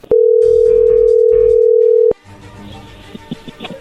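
A phone line rings while a call is placed: one long, steady, mid-pitched ringback tone for about two seconds, ending with a click, then faint line noise and soft clatter.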